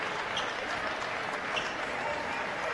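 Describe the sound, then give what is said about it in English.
Steady, sustained applause from a large crowd at a Big Sky versus Glacier game, an ovation for injured player Pyron as he is helped up off the floor, a dense wash of clapping that holds at an even level throughout without a break. “The crowd will have an ovation for Pyron.”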